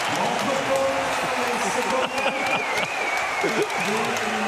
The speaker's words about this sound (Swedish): Båda lagen har sina klackar och jublar. Jag har aldrig sett på maken. Vi är kvalseriematch och det är bara vinnare här inne.